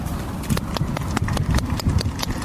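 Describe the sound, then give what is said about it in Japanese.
Steady applause from a crowd welcoming arriving Vissel Kobe players, sharp claps repeating in a quick, uneven rhythm over a low murmur, moderately loud throughout. “拍手です。拍手で皆さん、迎え入れています。”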